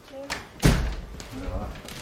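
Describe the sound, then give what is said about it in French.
A door swings shut with a single heavy, muffled thud partway through, its low boom fading quickly, inside the contemporary art museum in Lyon. Faint voices murmur in the background. “Bloqué entre deux portes, c'est un vrai labyrinthe, et un peu comme un enfant, je cherche mon chemin.”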